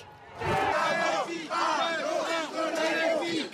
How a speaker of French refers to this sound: Une arrivée sous les huées